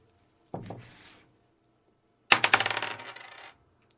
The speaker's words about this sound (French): prêt pour le lancer de dés allez vas-y